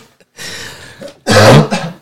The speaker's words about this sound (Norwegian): Og litt, litt korona har jeg, så jeg må hoste litt.